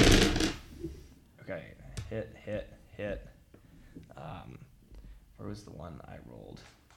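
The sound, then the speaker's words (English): A brief, loud clatter of dice tumbling across a hard table opens the moment, then a man starts talking as the rattling dies away. “I feel like I rolled five dice.”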